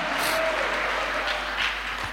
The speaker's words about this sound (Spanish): Amén, amados hermanos, dale un aplauso al Señor.